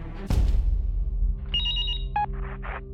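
A cell phone rings with an incoming call, a short electronic ringtone of bright chiming tones after a soft handling thump, with no one speaking; a recording device from Radio Shack is attached to the phone.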